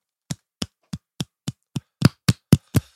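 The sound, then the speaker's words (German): One person claps ten times, slowly and steadily, each clap crisp, as applause for Tony Ferguson. The claps grow a little louder and quicker toward the end, with no talking. “An der Stelle Applaus für Tony Ferguson.”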